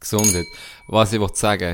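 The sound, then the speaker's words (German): Glasses clink together in a toast, leaving a thin ringing tone that lingers briefly while people keep talking. “Cheers, cheers ja, to that.”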